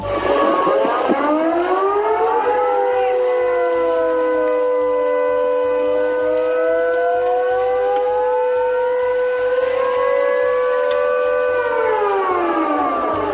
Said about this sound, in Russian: Это Севастополь. Морской пассажирский транспорт в Севастополе приостановил работу. Власти включили сирену.